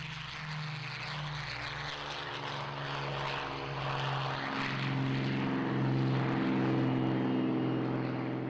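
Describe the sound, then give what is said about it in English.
Steady, loud drone of propeller aircraft engines in flight, with layered harmonic tones slowly shifting in pitch as the engines beat against each other, building slightly in volume. No voices. “Almost too small for a Lancaster, he wanted to fly the Mosquito, the wooden twin engine de Havilland Raider that was renowned for its speed and panache.”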